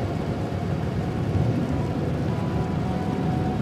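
A steady thunderstorm: dense rain hisses without pause while low, rolling thunder rumbles underneath, swelling slightly around the middle. No voices are heard.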